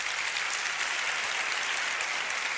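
An audience claps steadily, a dense wash of many hands with no pauses or voices, holding a fairly even loudness for the whole few seconds; those who habitually use social networks clap on request as an experiment.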